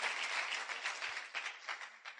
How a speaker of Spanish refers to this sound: ¿Se pueden poner de pie, por favor? Wow, muy bien, bienvenidos. Un aplauso, pero bien grande. Bienvenidos a la familia.